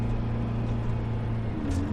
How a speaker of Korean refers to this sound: 버스는 고객길을 넘느라 좌로 쏠리고 우로 쏠리며 덜컹대는 중이다.